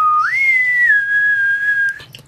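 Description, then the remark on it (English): A person whistles a single sustained tone that slides up, holds, dips slightly and then holds steady for about two seconds before stopping. Clear and fairly loud, with no talking. “And unknown whistlers started plaguing the nation the same day.”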